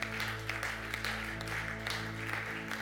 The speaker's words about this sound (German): Ja, lass uns Gott loben. Lass uns einen Applaus geben gemeinsam, denn ich glaube, dass Erneuerung in der Luft liegt.